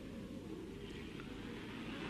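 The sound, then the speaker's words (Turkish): A steady, low engine rumble runs throughout as a car that has just been started drives at an even pace around a building block, with no voices. “Şu bina blokunun etrafında bir dönelim.”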